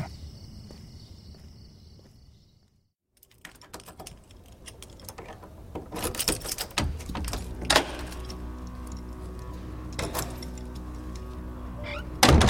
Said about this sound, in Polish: Młody mężczyzna leżący na kanapie podniósł wzrok z nad gazety, słysząc odgłos przekręcania zamka.